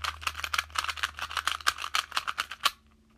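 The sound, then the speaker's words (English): Rapid plastic clicking and clacking of a 2x2 Rubik's cube being twisted, a quick uneven run of turns for nearly three seconds before stopping abruptly into quiet. “The answer the answer was it was a Rubik's cube. Specifically, take a guess, a 2 by 2.”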